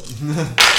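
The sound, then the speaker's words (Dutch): A burst of many six-sided dice (D6s collected from all the players at the table) clattering across a tabletop, a loud, dense rattle that starts abruptly after a moment of someone laughing; the dice are rolled for fireball damage in a tabletop role-playing game. “Dit is het geluid van een fireball.”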